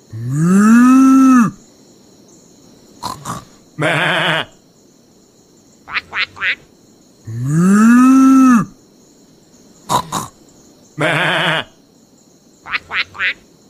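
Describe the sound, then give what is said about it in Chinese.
A sequence of farm animal calls in a barn, repeated twice: a long, low moo, quick quacking bursts, a bleat, then a rapid trio of short chirpy calls, loud and clear with no talking. “我听见有好多动物的声音啊！”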